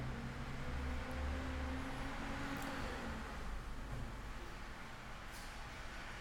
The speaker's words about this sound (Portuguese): Gente, não repara o barulho, é o caminhão de lixo passando, tá?